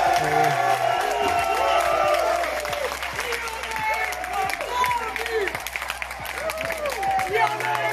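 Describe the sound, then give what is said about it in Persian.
A large crowd applauds and cheers loudly and continuously, with scattered whoops and shouts rising over dense clapping and an excited roar throughout. “ببین تشویقاش چجوریه”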